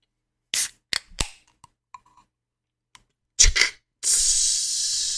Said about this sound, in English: Cherry lime spiked seltzer. Ew. It is 5% AB, ABV. Gluten free. 100 carbs or 100 calories, 3 grams of carbs. So let's let's see what this is like. Get that can opening here.